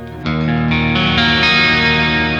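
Electric guitar on the neck pickup, sustained chords shifting every half second or so, loud and even with a warm, effects-laden tone and no talking.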